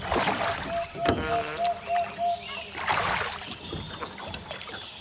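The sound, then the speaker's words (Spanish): Oars dip and pull through water in a steady rowing rhythm, with splashes and trickles, plus occasional creaks and faint outdoor ambience with some birdlike chirps; a boat without a motor rowed on a lagoon in hot weather. “aquí toca con los remos. Así que toma y a sacar brazo.”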